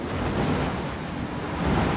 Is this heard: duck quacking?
no